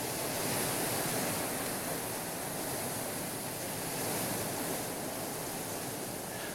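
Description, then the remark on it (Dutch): Heavy rain from Storm Pia drums on a roof in a dense, unbroken roar, a loud steady hiss that barely swells or fades for several seconds, with no voices. “En de storm hier is ook overweldigend, want u hoort het ruisen van de regen op het dak.”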